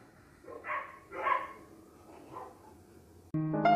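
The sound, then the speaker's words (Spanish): Dogs bark in a few irregular bursts at moderate volume, without any talking, before music cuts in abruptly near the end. “espero que no lo hayan escuchado, porque nada se escucha menos profesional que un perro en un podcast.”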